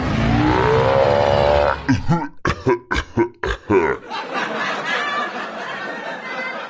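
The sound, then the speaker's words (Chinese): A voice imitates Godzilla coughing: a long, deep, rumbling growl followed by a quick series of about five sharp, harsh coughs, then a rough, breathy rasp trailing off. “哎，不过哥斯拉咳嗽过吗？怎么咳？是不是这样？”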